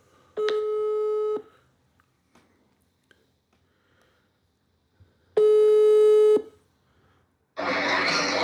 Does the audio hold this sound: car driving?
no